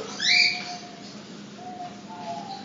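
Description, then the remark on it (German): A large parrot gives one loud, shrill screech near the start, then falls quiet over a soft background hum with no one talking. “Ein großer Papagei, ein schicker Papagei?”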